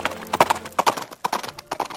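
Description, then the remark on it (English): Horse hooves clip-clopping at a steady walking pace, sharp paired knocks repeating every half second or so, fairly loud with no voices; Jed Smith riding his horse west toward High Beaver Country. “just 10 days after the attack, Jed Smith is back on his horse and heads west to High Beaver Country, 600 miles away.”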